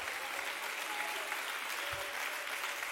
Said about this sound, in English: Somebody clap your hands and lift your voice to the Lord.